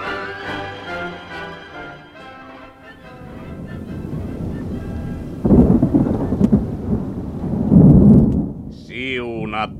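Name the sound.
thunder rumbling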